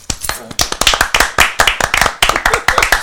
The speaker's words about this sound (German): Applaus.